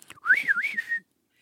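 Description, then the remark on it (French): A single clear whistle lasting under a second, rising and dipping in a wavy, warbling line, a person imitating a bird's call, followed by silence. “un petit coup de sifflet d'un oiseau.”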